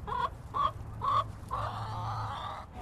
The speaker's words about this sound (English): and you can see there's the chickens in uh, what's called the chicken tractor, which is kind of a movable coop if we want them to work and cultivate a certain area, which is exactly what they're doing now.